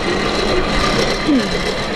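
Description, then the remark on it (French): A small snail-shaped forge blower runs steadily to revive the forge fire, a continuous rushing of air over a low mechanical hum, fairly loud and unbroken for the whole stretch, with no voices. “Et là, ce qu'on entend, c'est un petit soufflet pour raviver la flamme.”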